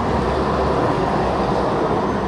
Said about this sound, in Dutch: Nog even een tram weer langs.